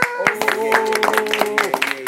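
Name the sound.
applause and clapping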